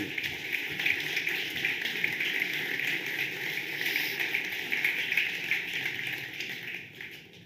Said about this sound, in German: Also, die haben jetzt zwar geklatscht